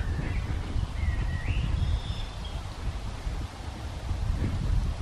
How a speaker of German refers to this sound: Sehr schönes Naherholungsgebiet und das eignet sich natürlich auch hervorragend für Außenaufnahmen mit diesem neuen Mikrofon, sofern denn überhaupt etwas zu hören ist, außer Windgeräusche.